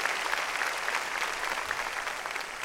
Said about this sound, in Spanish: Si usted quiere la bendición, a ver, démosle palmas fuertes al Señor, gloria a Dios.